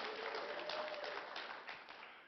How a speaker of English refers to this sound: And aren't you glad? Amen. You should give the applause to the Lord right now for that.